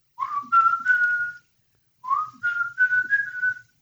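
A person whistles a short song melody in two phrases, each a series of steady, sliding high notes, separated by a brief pause. The whistling is clear and moderately loud, with no talking.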